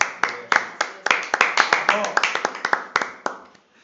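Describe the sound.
A small group claps their hands in quick, slightly uneven bursts, close and fairly loud, with faint voices murmuring underneath before the clapping trails off at the end.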